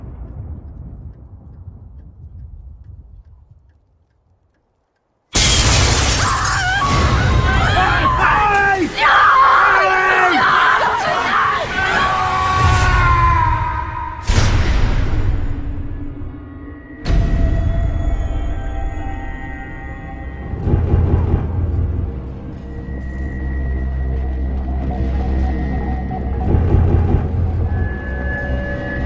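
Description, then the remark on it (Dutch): The trailer for the horror film 30 Days of Night: a low, quiet rumble, then a sudden blast of loud screaming and chaotic noise, followed by heavy booming hits and tense, droning music. “Waarvan jullie nu de trailer te horen krijgen.”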